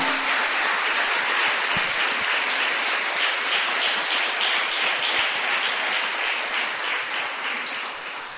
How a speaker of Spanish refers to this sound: Dale unas palmas al Señor.